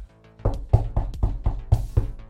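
A rapid run of about eight firm knocks on a door, evenly spaced in a quick steady rhythm, fairly loud, with no voices; a stranger knocking at the door in a video game.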